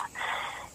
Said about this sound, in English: Sorry for my dog yawning in the foreground.